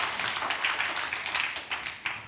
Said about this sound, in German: Da könnte der Applaus auch ein bisschen dicker ausfallen. 36 Jahre, das gibt's nicht so oft.